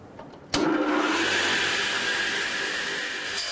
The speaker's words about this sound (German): Julia sägt das Brett in gleichmäßig große Stücke. Ablängen nennt der Fachmann das.